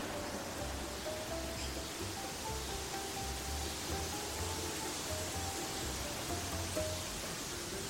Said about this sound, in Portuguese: Dona Edna conta para mim que a sequência de árvores que eu tanto gosto de escutar no sacolejo do vento é de exemplares de oiti.